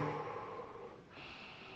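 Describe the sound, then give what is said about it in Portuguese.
A long, deep abdominal breath from the diaphragm, drawn in to fill the abdomen and then let out, airy, with no talking. “E tem aquela respiração que é mais diafragma, é uma respiração que é no diafragma, uma respiração abdominal. Você enche ali o abdômen,”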